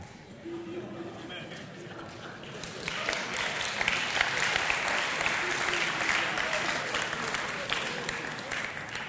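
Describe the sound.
An audience breaks into applause that swells after a few seconds into a dense, steady wash of clapping and keeps going to the end, with a faint voice audible at the start.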